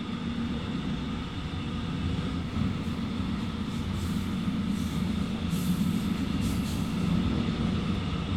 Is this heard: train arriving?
yes